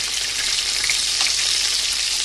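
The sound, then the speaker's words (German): Breaded food frying on all sides in a pan, a steady, dense hiss and crackle of sizzling oil with scattered small pops, continuous and fairly loud throughout with no voices. “Dann schön von allen Seiten braten.”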